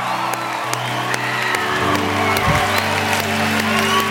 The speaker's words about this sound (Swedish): Kom igen Nyhemshallen, kan vi bara jubla inför Jesus och prisa honom och tacka honom.